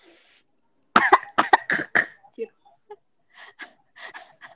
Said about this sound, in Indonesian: Serius? Batuk dulu nggak tuh?